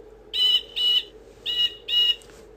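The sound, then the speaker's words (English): A blue jay's harsh, scratchy call rings out four times in two quick pairs, loud over a low steady hum, with no talking. “In the sky, the blue jay sails on the wind.”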